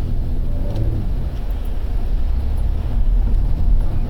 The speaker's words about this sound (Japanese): 今ねちょっと遅い車さんがねいるんですよそうだ車乗ってるから車の話しようかね